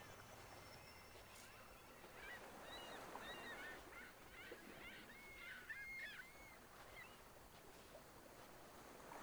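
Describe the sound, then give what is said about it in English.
A flock of geese flying back to their roosts honks and calls to each other overhead, the cries overlapping in a steady chorus over a soft, constant background wash like water. “They call to each other, and sometimes some pass close enough for you to hear their wings flutter like pieces of paper”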